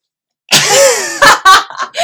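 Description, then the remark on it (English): A person imitates a hiss: a loud, raspy, breathy burst lasting most of a second, followed by a few short huffing bursts that sound like stifled laughter. “Give me your best hiss sound”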